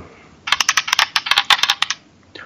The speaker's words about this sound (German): So, würfel mal, mein Lieber.